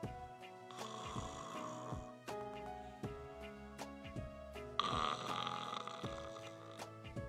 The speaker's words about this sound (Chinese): 这胖猪说完呀。就开始打呼噜了